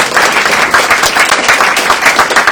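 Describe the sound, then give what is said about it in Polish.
Steady, dense audience applause fills the whole stretch, many hands clapping together at a constant loud level with no voices on top. “Wielkie brawa! Nadchodzi. Te brawa muszą trwać tak długo,”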